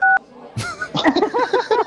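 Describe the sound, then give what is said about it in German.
A single short, loud telephone keypad tone beeps right at the start, caused by a caller's cheek pressing the phone's buttons, followed after a brief pause by a person talking. “Du drückst immer mit deiner Wange auf Knöpfe. Es piept immer.”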